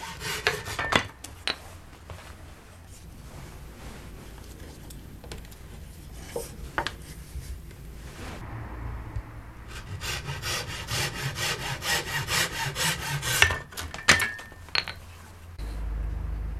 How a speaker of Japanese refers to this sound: まずは型で寸法を測りノコギリで切りますこれを玉切りと言います